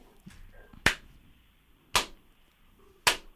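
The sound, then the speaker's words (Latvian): Three sharp, crisp hand claps ring out one at a time in a studio, marking a correct answer, roughly a second apart, each a loud snap with a short room tail, over near silence with no talking. “Tieši tikai viena aplausa, kas skan studijā.”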